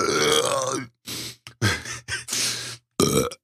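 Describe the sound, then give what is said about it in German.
A run of loud burps: one long drawn-out belch followed by several shorter, croaky bursts separated by brief pauses, with no talking. “ey, Junge, ich hab ähm, seit fünf Minuten steckt mir der quer, Alter.”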